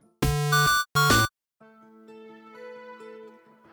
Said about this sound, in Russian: Я буду включать песню, кто быстрее угадает, начинает ее кричать громко в микрофон, может подпевать.